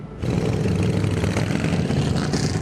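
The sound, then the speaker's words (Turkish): Several motorcycle engines of a motorcycle convoy waving Turkish flags rumble and rev together along the seaside in Maltepe, Istanbul, Turkey, a dense, continuous low growl with rising throttle bursts, no talking heard. “İstanbul Maltepe'de motosikletli konvoy sahil şeridi boyunca renkli görüntüler oluşturdu.”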